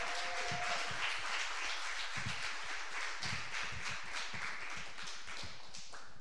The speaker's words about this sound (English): uh, can we get another round of applause for all the stories we told, heard tonight?